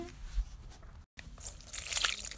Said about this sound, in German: wird jetzt gleich da dieses Wasser von India Orange auf meinen Top kippen. Das liegt schon in der Schüssel. Und jetzt hört es euch an.